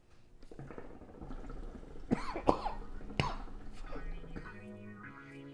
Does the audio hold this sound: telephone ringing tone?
no